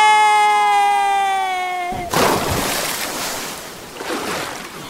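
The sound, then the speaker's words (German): A steady humming tone stops abruptly, then a person's body plunges into ocean water with one loud splash, followed by churning, bubbling water that fades slowly. No one speaks. “Krass, ich glaube, ich habe mir beim Aufprall auf dem Wasser den unteren Rücken gezerrt.”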